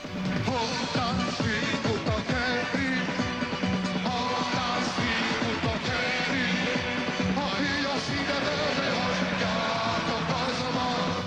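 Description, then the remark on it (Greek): At the end of the first concert after the fall of the Junta, a large crowd chants and shouts the political slogan "Give the Junta to the people" together, a loud, dense wall of many voices that stays steady and continuous throughout, with no single speaker standing out. “Αυτή είναι η πρώτη συναυλία του μετά την πτώση της Χούντας, ο κόσμος στο τέλος φωνάζει «Δώστε τη Χούντα στο λαό».”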